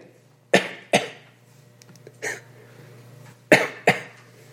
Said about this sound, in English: little cough.